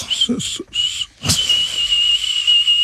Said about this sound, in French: Ah, c'est désagréable. Non. Cessez, monsieur. Euh, tu veux-tu un sifflement plus agréable, tu Non, il n'y en a pas. Un sifflement, c'est juste désagréable à la ah, base.